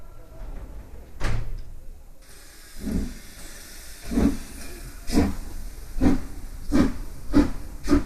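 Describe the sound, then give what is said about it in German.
A steam train to New York at a station hisses and chuffs, with a steady series of loud, rhythmic bursts of steam and low thumps over a constant background hiss; no voices are heard. “Train to New York! All aboard!”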